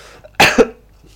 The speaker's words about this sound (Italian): eh, tossire.